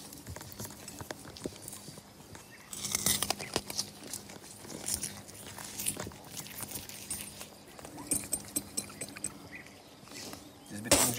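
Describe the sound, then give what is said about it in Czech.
Someone bites into and chews a lump of wood charcoal to clean their teeth, with a steady run of gritty, irregular crunches and clicks that swell louder in a few bursts. “Kousnu. Hm, Nakousnu.”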